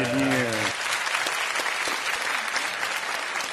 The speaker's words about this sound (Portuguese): que, que vocês estão aplaudindo? Fui perdoado, Eu não sei né, que vocês estão aplaudindo.